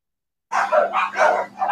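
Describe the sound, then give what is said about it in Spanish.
Dogs bark repeatedly in quick, overlapping bursts, several yaps in a row at moderate volume with no talking over them. “Es que a veces, esta, es la hora en que ladran mucho.”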